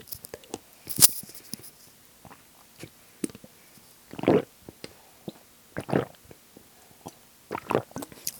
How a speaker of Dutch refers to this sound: Ik neem weer even een slokje van mijn AA Energy.